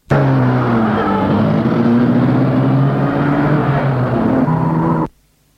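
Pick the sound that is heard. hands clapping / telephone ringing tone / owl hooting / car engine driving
car engine driving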